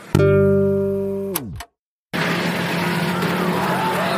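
A racing car's engine whines at a steady high pitch, then drops sharply as it speeds past. After a brief silence, a dense, continuous roar of cars on the track follows, on the last lap of a race with six cars still running.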